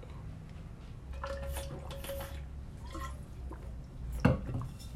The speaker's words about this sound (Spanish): Déjame tomar agua.